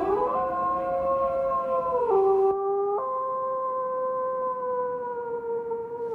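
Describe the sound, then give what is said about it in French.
A long, drawn-out wolf howl aimed toward the moon on a cold, still night, several voices overlapping in sustained tones that shift pitch slightly partway through, steady and fairly loud with no talking. “Il ranimait en lui la vie de jadis, et quand dans la nuit froide et immobile il pointait le nez vers la lune et poussait un long hurlement de loup, c'étaient ses ancêtres, morts et enterrés, qui hurlaient à travers les siècles et à travers lui.”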